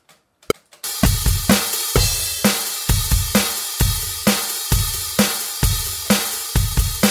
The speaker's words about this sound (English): So the drums are done. Not perfect, but I'm not going to go and go crazy and do a million takes.